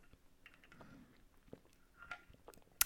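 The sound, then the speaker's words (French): Someone takes a quiet sip of water from a Starbucks water bottle: faint wet mouth clicks and soft swallowing sounds, ending with a sharp little click. “On va se prendre une petite gorgée d'eau.”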